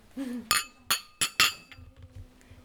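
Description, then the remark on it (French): Four bright glass clinks ring out in quick succession, each with a short shimmering tail, like glasses touched together in a toast, followed by faint low rustling. “Cheers.”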